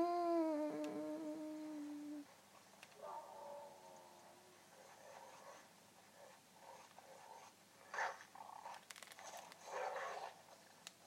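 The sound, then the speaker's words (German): A drawn-out, tonal animal whine from a video game opens, followed by scattered snarling growls and grunts like a wolf or wild boar, moderately loud, with quiet gaps between bursts. “Aber diese Wolfs, das Wolf finde ich schon sehr, sehr gruselig. Oder ist es ein Wildschwein?”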